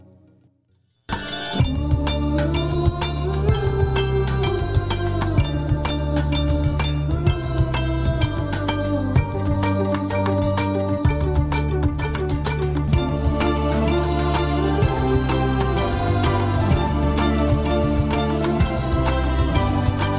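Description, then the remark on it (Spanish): A bright, full-band TV series intro theme tune bursts in after a second of near silence, with steady driving bass, rhythmic percussion and layered melodic instruments playing loudly and continuously to the end. “Qué buen intro, ¿no, Sam?”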